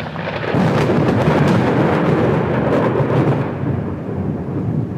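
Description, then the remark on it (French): A loud thunderstorm with lightning and gusting wind, as a Skoda car drives into it: a deep, sustained rumble of thunder rolls over steady heavy rain falling on the travellers, swelling after a brief start and easing slightly toward the end, with no voices. “À l'horizon, et pourtant proche, la foudre fendait les nuages. Une pluie paradoxale s'abattit sur les voyageurs, le vacarme était assourdissant.”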